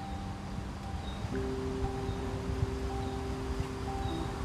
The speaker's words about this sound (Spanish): este ir y venir de las hojas, el sonido del viento.